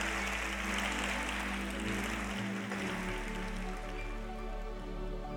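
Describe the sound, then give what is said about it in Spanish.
A sustained wash of applause given to God, dense and steady for several seconds, with a low hum running underneath and no voices over it. “Y se puede darle fuerte este aplauso a Él.”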